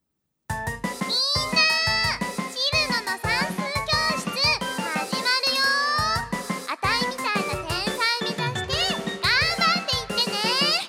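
An upbeat song plays continuously after a half-second of silence, with a high-pitched, bouncy vocal melody over dense, bright instrumentation and a steady driving beat, loud throughout.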